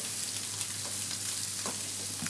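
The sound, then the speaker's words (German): Garlic sizzles steadily in a frying pan, a dense crackling hiss that stays fairly even, with a low electrical hum underneath and a few brief clicks of stirring. “So, das jetzt hier da rein. Ich mache mal ein bisschen die Tür hier auf Kipp. Knoblauch bei.”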